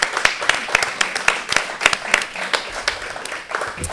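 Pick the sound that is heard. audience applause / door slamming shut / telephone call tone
audience applause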